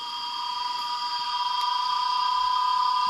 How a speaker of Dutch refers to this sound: Hier en daar staat er nog een boom overend. En de rest is zwart geblakerde grond en bomen geveld door het vuur. En op die schroeiende lege vlakte vestigen zich de krekels.